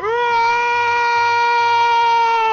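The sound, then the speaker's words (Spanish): A dog howls in one long, loud, sustained note that rises briefly at the start and then holds a steady pitch, rich with harmonics, without any voices. “El perro aúlla como loco, no soporta esta tortura.”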